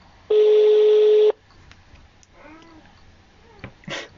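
A single loud, steady ringback tone of an outgoing phone call sounds for about a second, then stops, leaving quiet room noise with faint meow-like sounds and soft rustles.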